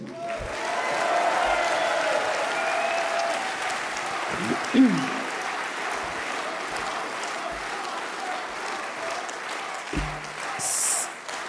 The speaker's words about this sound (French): Je salue enfin je salue enfin l'engagement de François Asselineau qui, depuis 12 ans, a bousculé le ronron européiste. Merci de l'applaudir.